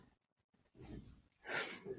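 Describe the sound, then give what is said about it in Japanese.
A small, quick sneeze from the cat Moka bursts out as a short hissy puff, preceded by soft rustling and low breathy noise, all fairly quiet with no talking. “どうしたくしゃみ出てんの”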